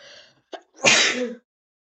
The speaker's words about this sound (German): Boah, ich muss kurz niesen.